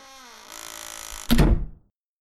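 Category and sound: household object, door being closed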